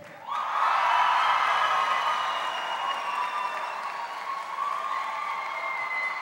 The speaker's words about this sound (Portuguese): Vamos aplaudir, pessoal. Vamos aplaudir. Maravilha.